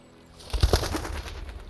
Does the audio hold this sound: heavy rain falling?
no